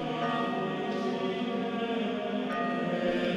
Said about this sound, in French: C'est en fait un générateur de chant grégorien qui te permet de créer ton chant tout bien comme tu veux, régler l'intensité, le nombre de voix, la réverbération de chaque voix, et même les cloches en fond sonore.